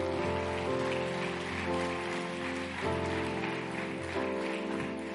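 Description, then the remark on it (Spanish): A crowd gives a loud round of applause to the Lord, clapping steadily for several seconds in a dense, even wash, with sustained keyboard chords playing underneath. “Alguien le puede dar un fuerte aplauso al Señor.”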